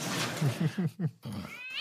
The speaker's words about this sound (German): War das deine Katze